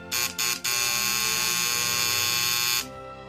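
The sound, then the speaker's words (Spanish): A doorbell buzzer at an apartment is rung, loud and harsh: two quick short bursts followed by one long, steady buzz lasting a couple of seconds, then it cuts off. “Finalmente encuentro el apartamento que busco y llamo al timbre.”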